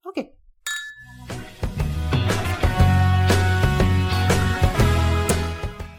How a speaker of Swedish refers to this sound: klirret där var ju våra glas.